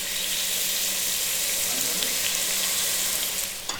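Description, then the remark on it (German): Pumpkin cubes frying in lightly caramelized sugar in a pot, a steady, dense hiss and crackle that holds evenly loud for the whole stretch with no voices over it. “schön der Kürbis im karamellisierten Zucker.”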